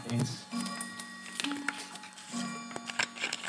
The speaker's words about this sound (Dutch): Oh jongens, wacht heel even één seconde, want dan gaat mijn klok af.